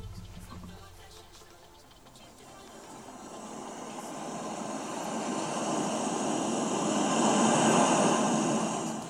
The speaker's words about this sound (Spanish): Ah, por ejemplo, en allá llegó, ya puso el sonidito del mar aquí, imagínense ustedes en el mar, no sé si lo pueden escuchar aquí o para que se relajen tantito, a tantito.